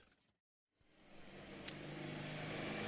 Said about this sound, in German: Und so machten sich Kaspar, Bugaman und Pixbogol in Pixbogol Citroën 2CV auf den Weg in die österreichische Steiermark für ein Meet and Greet mit Josef Maria und dem Jesuskind.